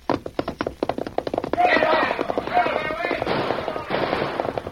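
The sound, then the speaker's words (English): A rapid volley of sharp gunshots crackles in quick succession, bullets flying at the Lone Ranger as he rides his horse Silver, then gives way to a dense, rushing wash of noise and scattered bangs that carries on loudly to the end. “Bending low over the pommel of the saddle to avoid the flying bullets, the Lone Ranger urged his gallant horse to greater efforts.”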